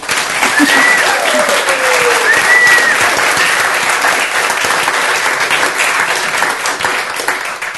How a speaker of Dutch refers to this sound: Mag ik daarom een hartelijk applaus voor ….